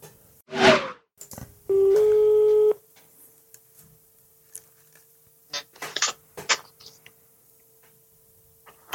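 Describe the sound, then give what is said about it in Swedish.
A telephone call tone as a phone call to the speaker's father is placed: one loud, steady electronic beep lasting about a second after a brief rustle, then a faint continuous tone with scattered clicks and handling noises. No one speaks. “Och nu, för att knyta ihop denna underbara goa spionsäcken så ska vi ringa min kära far och höra vad han vet om Fäbodjäntan och vilken hans favorit Bondfilm är.”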